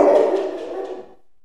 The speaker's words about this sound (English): That's my eight year old attack dog. Come here, boy.